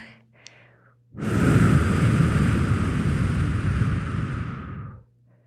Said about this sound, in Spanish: Voy a soplar